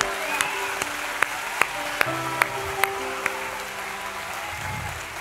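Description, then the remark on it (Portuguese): A church audience applauds Jesus in a steady, dense wash of clapping, punctuated by sharper rhythmic claps about every half second, with sustained keyboard chords humming underneath and no one speaking. “quer aplaudir Jesus? Aplauda.”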